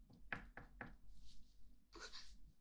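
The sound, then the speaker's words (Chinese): Three quick, evenly spaced knocks on a door, fairly soft and dull, followed after a pause by a brief breathy rustle; no one speaks. “主人，好像有人敲门。”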